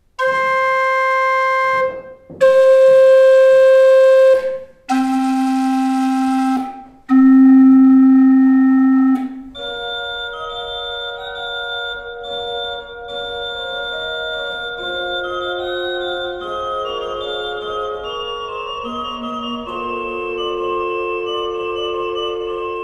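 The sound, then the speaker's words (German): A pipe organ plays: four loud sustained chords in separate blocks, the last two lower, then a flowing passage of held notes with moving lines, no talking. “wie sich von den Tasten die Holzbestandteile, die sogenannten abstrakten, zum Wellenbrett hinbewegen und dann schließlich in der Windlade die ganzen Ventile öffnen, damit die Luft zu den Pfeifen strömen kann und dort letztendlich den Klang erzeugen.”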